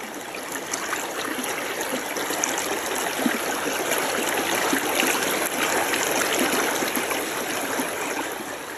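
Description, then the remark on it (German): A fresh stream babbles along steadily, a continuous rush of bright trickling fresh water with no voices, keeping an even level throughout. “Stellt euch vor, es ist ganz warm und lauscht einfach mal diesem wunderbaren, herrlich frischen Wasser, wie es da so entlang plätschert.”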